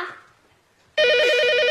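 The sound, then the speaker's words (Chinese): After a faint, fading tone and a moment of near quiet, an office telephone at a company suddenly rings out loud and steady, a shrill warbling electronic trill that keeps going without pause. “接电话”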